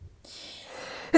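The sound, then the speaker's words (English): A breathy, hissing intake of air builds for about a second, then breaks into a single loud, sharp sneeze burst right at the end, from a person who is nine months pregnant and has hay fever. “now that I'm nine months pregnant and I have hay fever, it's like any given sneeze could be the moment my bladder completely empties.”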